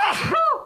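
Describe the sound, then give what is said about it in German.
A single sharp sneeze bursts out loudly and cuts off quickly, with no talking around it. “Gesundheit!”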